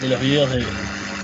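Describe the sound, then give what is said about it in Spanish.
A second computer's mechanical whirring hums steadily under a person talking, a continuous grinding drone that carries on briefly after the voice fades. “es la otra computadora, espero que, no se caiga.”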